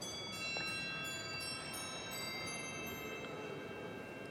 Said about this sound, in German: hier an der Orgel, zwei Glockenspiele, ein Schalenglockenspiel, das ähnlich so ein bisschen wie eine Fahrradklingel vielleicht klingen mag, aber auch sehr effektvoll eingesetzt werden kann, natürlich gerade in der Weihnachtszeit dann.